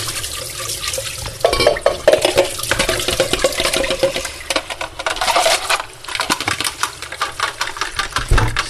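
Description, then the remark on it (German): Running water pours steadily from a tap into a sink as cooked pasta is rinsed beneath the stream, with a broad splashing hiss and occasional clatters, fairly loud, no talking. “So, dann schön abspülen.”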